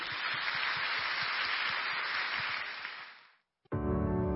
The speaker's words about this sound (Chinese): 让我们再一起拍手欢迎这个影片。